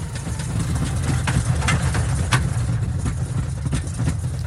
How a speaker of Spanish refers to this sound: si suena un avión pasando por una zona de turbulencias, que decimos que no es muy confortable, aunque en realidad es plenamente seguro.